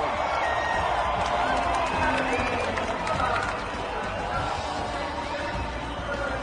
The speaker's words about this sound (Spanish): Vamos a escuchar la gritería del público mexicano cuando salga Luis Hamilton a ocupar la posición de privilegio.